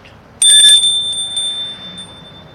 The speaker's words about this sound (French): Vieille maison noire. Il sonne à la porte.